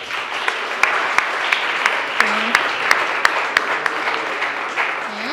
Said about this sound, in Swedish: Tack för att du är här, en applåd till dig.